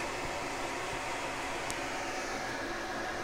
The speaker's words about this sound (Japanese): 茹で終わったのでちょっと換気扇をちょっと一段弱くしたあまりにうるさいからかといってねガンガン湯気出てるからこれを今換気扇止めちゃうとね湿っちゃうよねまあいいかもう湿度低いから止めちゃえ